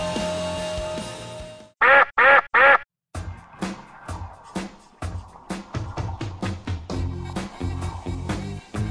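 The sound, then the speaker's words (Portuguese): Three loud, nasal goose honks ring out in quick succession, from geese used to guard prisoners at a penitentiary in Piauí, standing out alone between a stretch of soft music and a busy, rhythmic musical passage that follows. “Com um efetivo insuficiente, penitenciária usa gansos para vigiar presos no Piauí.”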